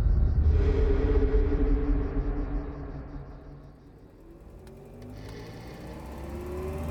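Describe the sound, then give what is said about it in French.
A car's engine rumbles steadily from inside the cabin as Pablo Picasso and Françoise travel along country roads in stifling early-summer heat, a deep continuous drone with shifting tonal hums, dipping slightly midway before swelling again. No one speaks. “Dans la voiture, Françoise s'est assoupie en ce début d'été, l'atmosphère est étouffante.”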